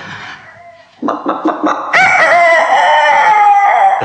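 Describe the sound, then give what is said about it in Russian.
A woman's voice mimics a rooster: a few quick clucking notes, then a long, loud, strained cock-a-doodle-doo crow held until the end. “Я всех птиц знаю, всех зверей знаю. Я по овечьи могу, по собачьи могу.”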